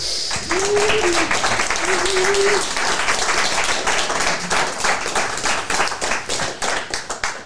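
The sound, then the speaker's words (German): A crowd applauds guests including Lars Ricken, steady dense clapping at a loud level, with a few brief whoops or voices rising above it near the start. “Erstmal ein bisschen Applaus für Lars Ricken, Rupert Thiele und Dirk Krampe.”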